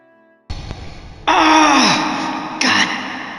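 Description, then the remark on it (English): A man cries out in pain after rolling his ankle at the bottom of a staircase, a loud, strained scream that falls in pitch, followed by sustained anguished moaning and a second sharp outburst, with no words spoken. “screamed out in pain”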